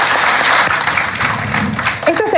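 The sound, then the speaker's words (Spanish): Sustained applause from a large crowd at a ceremony in the Congress of the Republic honouring people and institutions of Ancash, a dense, steady clatter of many hands clapping at full volume, with a voice beginning to speak over it toward the end. “Así es que yo quisiera un fuerte aplauso, aplauso para todos nosotros.”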